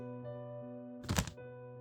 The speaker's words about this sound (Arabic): سمعنا صوت انفجار مكتوم ضعيف جاي من جوه السوبر ماركت